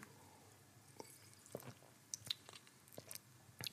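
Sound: sipping and swallowing water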